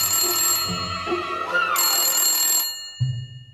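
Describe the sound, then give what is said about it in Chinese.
A hotel room telephone rings at about ten in the evening with a bright, sustained electronic tone lasting over two seconds, then stops; a short low hum or murmur follows at the end. No one speaks. “十点左右，维克多回到自己的房间，结果 夫人打电话过来了。”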